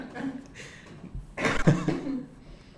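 A harsh burst of coughing rings out mid-clip, a couple of rough hacks bunched together, with faint voice sounds before and after.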